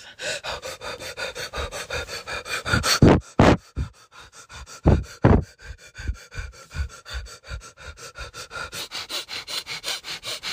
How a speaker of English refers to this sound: So focus on your belly going bigger and smaller, bigger and smaller as you breathe in feel like a dog, like you're panting.